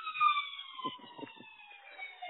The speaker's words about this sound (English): Oh, there's the Daily Siren. It wouldn't be a podcast without it.